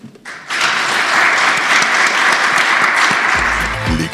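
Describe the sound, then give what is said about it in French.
Audience applause at the close of a live show in Caen starts abruptly and swells into a steady, dense wash of clapping that holds at full strength for several seconds, with a low hum surfacing near the end. “On se retrouve toutes et tous le mois prochain sous vos applaudissements.”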